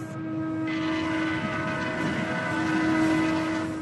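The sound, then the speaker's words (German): A steady, loud rumble of a long freight train loaded with iron ore rolling past in the Mauritanian desert, with a sustained low drone and metallic tonal ringing throughout, no voices. “Irgendwann taucht in der Wüste Mauretaniens ein ewig langer Zug auf.”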